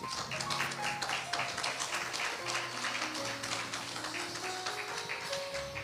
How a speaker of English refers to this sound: And God, we clap our hands in this sanctuary as a sign that they now are saved. Clap your hands for Jesus.